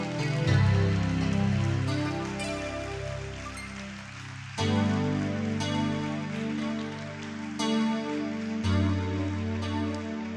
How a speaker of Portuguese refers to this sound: Aplauda ao Senhor por esta leitura.